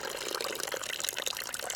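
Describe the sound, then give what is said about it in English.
A drink pours steadily into a glass, a continuous bright, splashy trickle lasting about two seconds with no voices. “Another glass, then.”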